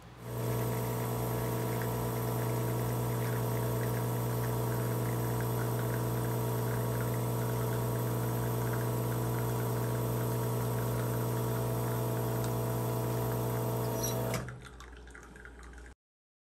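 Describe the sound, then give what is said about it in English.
An espresso machine pump hums steadily and loudly for about fourteen seconds while pulling a double shot from a double basket, with faint dripping over it, then cuts off abruptly, leaving a quieter low hiss. “This is uh, about 27 second pour, which is usually what I'm going for for my uh, double basket.”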